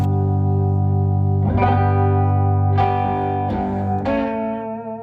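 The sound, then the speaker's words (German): Sustained electric guitar tones run through an Artec delay effect, with several sharp re-attacks around the middle and end, each smearing into lingering repeats and a thick, slightly distorted wash. No one speaks. “Dieses Delay ist übrigens von Artec, das ist manchmal, wenn man da falsch draufdrückt, dann geht's aus.”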